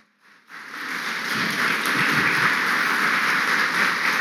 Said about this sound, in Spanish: Démosle ese aplauso al Señor nuevamente.